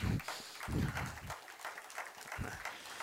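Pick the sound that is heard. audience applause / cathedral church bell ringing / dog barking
audience applause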